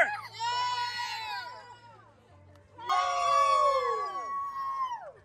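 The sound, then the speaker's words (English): A crowd of spectators by a lake screams and cheers loudly for runners in a race, in two sustained bursts, many high voices overlapping with a brief lull between them, energetic. “Come on, scream louder!”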